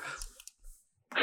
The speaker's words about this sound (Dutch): Wat u nu hoort is de klik van mijn stilo. Die dat even gaan noteren.